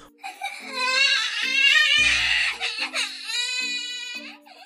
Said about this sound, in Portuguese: Se a irmã pequena berra,